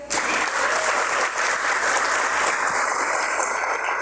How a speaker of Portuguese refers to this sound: E a gente tem quatro equipes participando dessa batalha. É, eu quero pedir para todo mundo aplaudir bem forte as equipes.